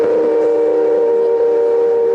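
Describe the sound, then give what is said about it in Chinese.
A steam locomotive whistle in Mito, Japan, sounding again for the first time in decades before a large crowd, blows loudly and steadily, one unbroken, mid-pitched tone rich in overtones that holds for the entire stretch without wavering or pausing. “在大批民众面前，火车頭暌违数十年，再度发出响彻云霄的鸣笛声，让从未听过这道声音的小朋友兴奋不已。”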